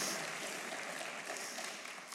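A crowd claps steadily in dense, sustained applause, many hands at once filling the space at a fairly even level for a couple of seconds with no one talking.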